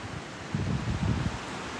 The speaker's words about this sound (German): okay, jetzt geht hier mal so ein krasser Wind durch.